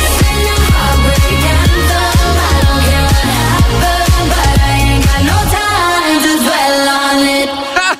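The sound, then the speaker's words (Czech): A loud, upbeat pop dance track playing on the Fajn Rádio morning show, with a steady pounding beat and bright synths and vocal melody; around the midpoint the bass and drums drop out, leaving a sustained, airy breakdown. “Jestli může po ránu něco zaznít, je to tohle.”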